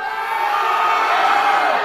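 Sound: group of people yelling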